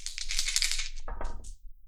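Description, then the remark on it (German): Dice clatter and tumble across a hard surface, rolled during a tabletop game to resolve a torpedo attack, a dense rattling burst for about a second followed by a few settling knocks, with no voices. “Darf ich würfeln? Darf ich würfeln? Natürlich.”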